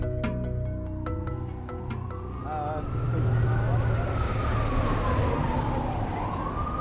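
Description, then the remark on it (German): Busy city square ambience at Times Square with a steady wash of traffic and crowd noise, as a siren slowly rises and falls in pitch across the middle, loud and sustained over the rumble. “Im Hintergrund hörst du live Geräusche von einem Ort, der zwar, ja, offen gesagt nichts mit dem Thema der heutigen Folge zu tun hat, an dem ich mich aber gerade befinde, nämlich der Times Square”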